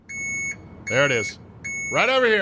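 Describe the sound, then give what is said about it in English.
A Brinks armored truck's reversing alarm sounds three steady, high-pitched beeps in a slow rhythm, loud, with a man talking over the second and third beeps. “that sound you hear beep, beep, beep, beep. That's the Brinks truck coming for Porter Moser”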